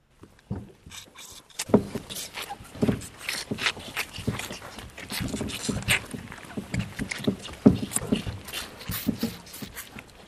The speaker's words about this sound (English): Vigorous suckling at a feeder by a group of three week old calves who are due to be collected later on that day for export to the veal market on the continent.